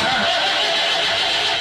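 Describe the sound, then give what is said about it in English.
A car engine cranks and struggles to turn over, a loud, continuous grinding churn that never catches, with no one talking. “So if your car sounds like this,”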